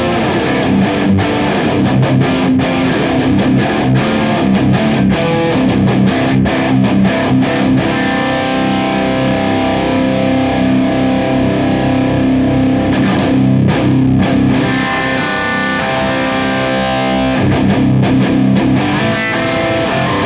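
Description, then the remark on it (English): Heavily distorted electric guitar played through a Boss IR-200 and the Neural DSP Archetype Nolly amp simulator plugin together. It plays continuously and loudly for about twenty seconds, with chugging palm-muted notes and sustained chords in a processed amp tone. No one speaks. “Boss IR 200 and the Neural DSP archetype Nolly together. It sounds like this.”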